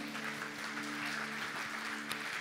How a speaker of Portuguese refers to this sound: Você pode dizer amém? Eu creio muito nisso. Dá uma salva de palmas a Jesus por isso.